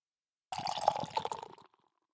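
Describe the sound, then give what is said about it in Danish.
A short burst of beer pouring into a glass, fairly loud, gurgling for about a second before cutting off into silence. “Ja, inden jeg skænker, så kan jeg jo sige, det lød godt for det første”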